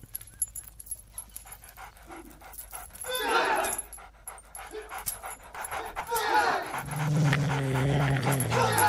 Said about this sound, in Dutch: U hoort hier dat de sledehonden de karateka's van uh, Oitsuki ontdekken en aanvallen